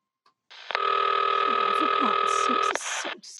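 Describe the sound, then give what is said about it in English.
A telephone rings down the line as an operator puts a call through to the police department: one steady, buzzing ring tone lasting about two seconds, fairly loud, cutting off abruptly, with faint murmuring underneath. “Ringing the police department.”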